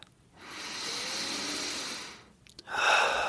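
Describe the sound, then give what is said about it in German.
A slow, deep breath drawn in with a long airy hiss, a brief pause, then a strong breathy exhale begins, clear with no talking. “Und jetzt machen wir mal einen tiefen Atemzug, den wir verbinden mit einem realen Atemzug in unserer gedanklichen Welt.”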